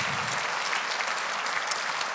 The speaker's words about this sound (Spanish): Dale un aplauso de gloria al Cordero de la Pascua. Te alabamos, Señor.